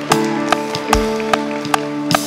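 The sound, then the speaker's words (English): A church audience claps hands in a steady beat, sharp crisp claps roughly twice a second, over sustained, humming musical tones from instruments or organ. “Can you give them a hand clap? Loud enough that they can hear you this morning.”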